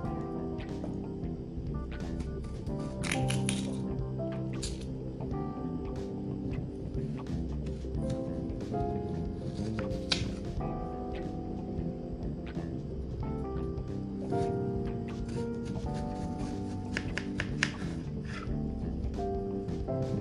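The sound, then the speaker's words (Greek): A knife cutting potatoes, with many short, sharp chops landing at an uneven pace over a steady, low tonal hum that runs throughout; no one speaks. “και τις κόψαμε τώρα”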